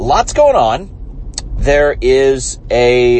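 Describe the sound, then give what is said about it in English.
A steady low rumble of car interior road noise runs continuously beneath a man speaking, a dull droning hum filling the background the whole time. “I'm bringing you this episode uh, from the car.”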